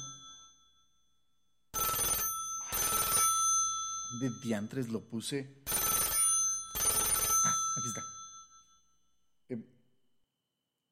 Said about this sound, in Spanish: ¡Ay! ¡Carajo el teléfono!